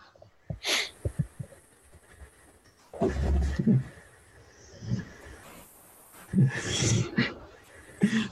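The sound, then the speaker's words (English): A female dog curled up on the floor snores loudly and raggedly, with rough, rumbling breaths repeating in irregular bursts, with no talking over it. “As my my my girl is curled up on the floor over there, and she's snoring very loudly.”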